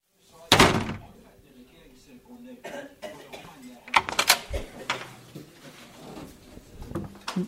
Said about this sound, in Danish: Det var en øh, automatisk branddør, som øh, lukkede i imellem et øh, gangafsnit, hvor der er beboere på det her plejehjem, og så ind til det fælles øh, område